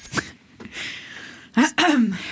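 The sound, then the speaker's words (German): Several rough, throaty bursts of someone clearing their throat, a short one followed by a louder, drawn-out pair near the end, with no talking. “du, du fängst an, weil du dich schon so schön räusperst, bitte.”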